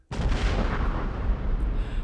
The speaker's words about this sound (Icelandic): Eftir þetta snerist hún við og flög öfug, þanga til efri hluti skrokksins skall á klett 570 metrum frá öðrum árækstrinum. Við það varð sprenging.